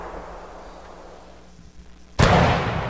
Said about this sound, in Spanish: A los cañones, muchachos, desde Juanadía para Ponce tirando los cañonazos.